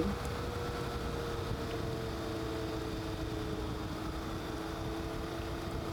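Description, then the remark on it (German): A steady motorcycle engine drones throughout while riding, with a constant low hum and rushing wind noise buffeting the microphone, loud, with no voices. “alle Spotify, iTunes-Hörer, ich fahre Motorrad”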